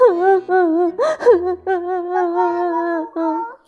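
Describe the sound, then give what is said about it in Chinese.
A storyteller imitates Peter the rabbit sobbing after he is caught in a gooseberry net: wavering, drawn-out whimpering cries in a few bursts, broken by a sharp gasping breath early on, fairly loud with no other sounds. “几只友好的麻雀听到了他的抽泣声，激动地飞了过来，劝他赶紧用劲儿往外挣脱。”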